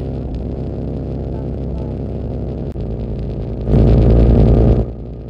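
A new snowmobile, an Intruder, being driven past: its engine drones steadily with a buzzing, harmonic tone, then swells into a loud roar for about a second before easing back down. No one speaks.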